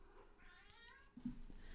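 A cat lets out a single drawn-out meow, fairly faint, its pitch gliding up and back down, followed by a brief low thump.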